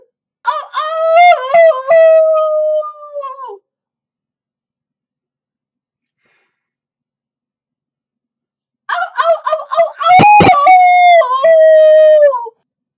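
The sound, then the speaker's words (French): A person imitates a wolf howling at the moon in two long, wavering, pitch-sliding howls separated by a pause; the second howl is loud and has a sharp click partway through. “Mais quand même, euh, tu, la vois bien, euh, la louve, non tu veux que je te fasse le hurlement à la lune ben, si tu veux...”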